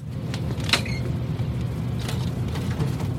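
A brief, high-pitched creak of a small crawlspace door swinging open, followed by a few soft clunks, all over a steady low background rumble with no one speaking.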